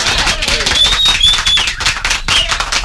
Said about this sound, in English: Ah, yes, the sweet sound of applause.